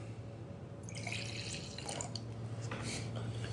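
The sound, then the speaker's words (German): Spätburgunder red wine pours into a glass with a quiet, gurgling trickle that starts after a brief pause and runs steadily to the end, with no talking. “Es fließt Rotwein ins Glas keiner aus dem Ahrtal.”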